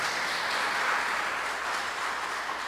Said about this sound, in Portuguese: Você pode aplaudir ao Senhor em nome de Jesus.